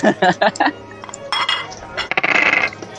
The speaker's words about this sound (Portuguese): vamos, vamos rolar dados, vamos rolar dados.